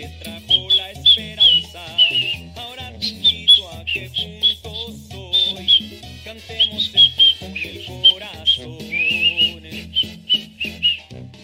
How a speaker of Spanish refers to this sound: ¿Saben chiflar ustedes?